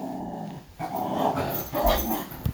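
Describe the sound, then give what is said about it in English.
A dog growls in low, rumbling bursts, two sustained snarls swelling and fading with a brief sharp yip near the end, fairly loud with no talking. “He acts like he's going to attack her when he comes out of the room.”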